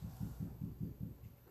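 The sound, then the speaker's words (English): A female dog scratching herself, her leg thumping the floor in a quick, steady series of about six soft, low thuds. The sound is faint and muffled, with no one talking. “That's my dog scratching herself and thumping on the floor if you hear something.”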